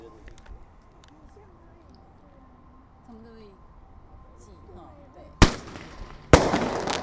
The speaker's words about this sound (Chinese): OK，现在来换下一支。其实没有鞭炮可以玩呢，光听这样的回忆就不错了。现在是另外一种烟火。